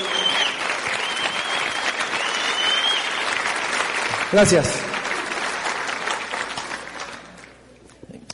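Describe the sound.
Sustained audience applause, a dense wash of clapping that holds steady for several seconds before thinning out; a man's voice briefly speaks over it near the middle.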